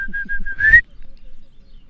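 A person whistles to lure an animal toward them: four quick, even chirps followed by a longer note that rises in pitch and then stops sharply, leaving near silence.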